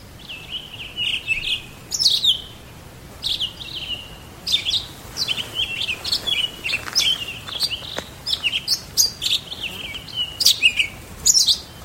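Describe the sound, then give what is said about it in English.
A Townsend's solitaire declaring its winter territory sings a long, rambling song of clear, varied high notes and quick warbled phrases, flowing almost without pause, alone against a quiet outdoor background in riparian habitat with pinyon juniper in New Canyon, east of Ephraim, Sanpete County, central Utah. “that bird you just heard was a Townsend solitaire declaring his winter territory here in central Utah.”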